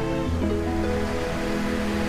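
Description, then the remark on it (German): A steady wash of ocean surf rolls in and out beneath soft, sustained musical tones, with a continuous, even hiss and no talking. “Achte auf das Kommen und Gehen der Wellen”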